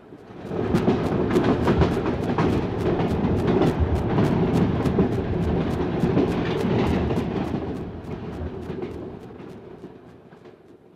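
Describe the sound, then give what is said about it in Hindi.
A passenger-filled train rumbles heavily with a steady, rhythmic clatter of wheels over rail joints, loud, then gradually quietens over the final seconds as it draws into Rahim Yar Khan station. “उसके बाद तो एक बार यूं लगा कि मुसाफरों से भरी हुई और अजाब के बोझ तले दबी हुई हमारी गाड़ी किसी स्टेशन में नहीं जहनुम में दाखिल हो रही है”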